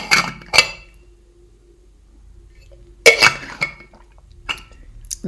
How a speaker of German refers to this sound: Ähm, jetzt muss ich auch gleich mal einen Schluck Wasser nehmen. Ein bisschen belegt heute der Hals.